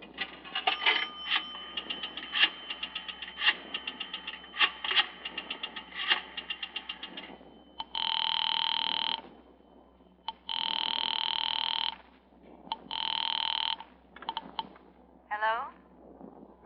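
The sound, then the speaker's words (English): A pay telephone is dialed with a run of quick, uneven clicks for several seconds, then rings in three long, steady electronic bursts with short pauses between them, fairly loud. “Mind if I use your telephone?”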